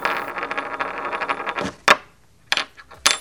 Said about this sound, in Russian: Мы с Квитным бросили орел-решка.